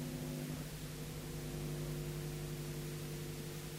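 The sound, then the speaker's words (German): A microwave oven in a newsroom in Cologne, Germany runs steadily, giving off a continuous low electrical hum with a layer of whirring noise on top, unchanging throughout. “Ja, da will man seine Hand auf jeden Fall nicht reinhalten in die Mikrowelle.”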